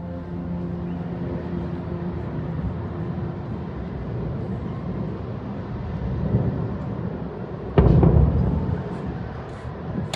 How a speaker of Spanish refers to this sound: Este es el sonido de los bombardeos en la franja de Gaza.